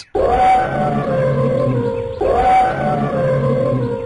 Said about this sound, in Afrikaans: Olly trompeter sommer twee keer na mekaar om vir Lucky te wys hoe kwaad hy is.